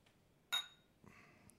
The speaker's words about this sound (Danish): Jamen, så skål, så skåler vi. For jeg så klinker vi.